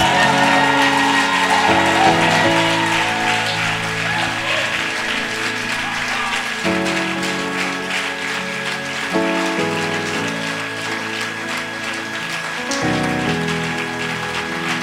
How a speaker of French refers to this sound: Lève-toi et acclame très fort pour le Seigneur.